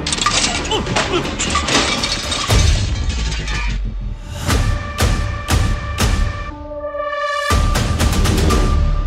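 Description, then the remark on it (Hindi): A loud, chaotic crash as a ceiling fan tears loose from the ceiling and falls straight onto a man's head, followed by several sharp metallic clanks and ringing rattles of debris settling, forceful with no voices. “उसकी गर्दन के झटके के साथ पंखा भी छत से उखाड़कर सीधे नरेश के सर पे जा गिरा”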